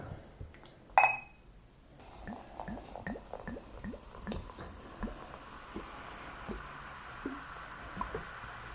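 A single bright glass clink rings out, then tea is poured into a glass: a steady, soft splashing stream with bubbly little gurgles that continues for several seconds.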